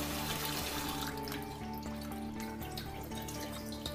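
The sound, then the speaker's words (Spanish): Glutinous rice, soaked about 8 hours, being gently rinsed in a sink with plenty of water until the water runs clear, with a steady rush of running water and soft splashing. It continues without pause and no one speaks. “Antes de cocinar, lo lavamos suavemente con bastante agua. Repetimos dos o tres veces hasta que el agua salga clara.”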